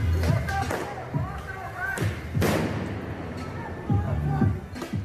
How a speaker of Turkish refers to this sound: Göstericiler polise havai fişekle taşlarla saldırdı.